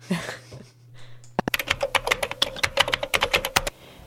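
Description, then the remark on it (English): Rapid keyboard typing starts after a quiet moment, a dense run of sharp clicking keystrokes at an uneven fast rhythm, fairly loud, then stops abruptly. “and that is the sound of new scientific discovery.”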